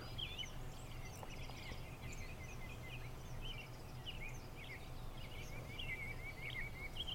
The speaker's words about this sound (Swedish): Vad hör du? Hör du vinden? Fåglarna som kvittrar?